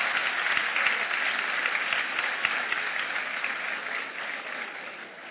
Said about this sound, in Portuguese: Sábado que vem, ela faz 80 anos, aplauda aí ao Senhor pela vida dessa mulher. Essa mulher abençoada.